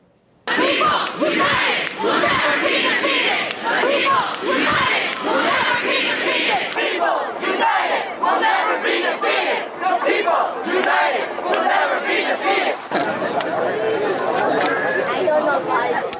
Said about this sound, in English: Some of the uh, slogans they have been chanting were also heard at anti Trump rallies carried out by supporters of former Democratic hopeful Bernie Sanders.